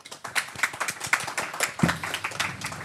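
Hand clapping from a few people, a quick irregular patter of sharp claps lasting a few seconds at moderate loudness, with no voices over it.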